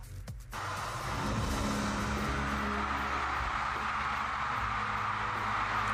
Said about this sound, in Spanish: escuchen nada más la ovación en México